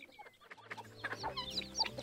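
Several chickens cluck and chatter, short bright calls overlapping in a busy, irregular stream against a low background hum, with no one speaking.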